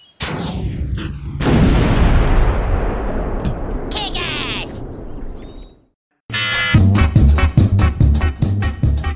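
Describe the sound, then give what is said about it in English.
A sharp crack followed by a loud hunting-rifle blast whose rumbling echo fades out over several seconds; after a brief silence, voices start talking. “Therefore, before we shoot something, we have to say, it's coming right for us.”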